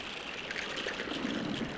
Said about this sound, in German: An der Stelle öffnet sich ein Strudel und reißt die Tiere zurück ins offene Meer.